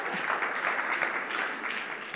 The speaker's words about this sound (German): Jetzt habt ihr meine Predigt durcheinander gebracht. Der Applaus sollte eigentlich danach kommen.